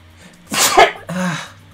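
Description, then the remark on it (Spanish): A single loud sneeze: a sharp, breathy burst of air followed by a brief voiced exhale, with a quiet background before and after. “Salud. Ah. Ah, muchas gracias. Hoy por fin salió.”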